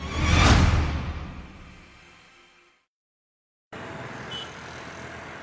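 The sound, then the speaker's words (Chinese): A single small car rushes past in a loud whoosh that swells and then fades away over about two seconds. A short silence follows, then a steady, low traffic hum. “路过的小汽车锁定了修理厂员工。”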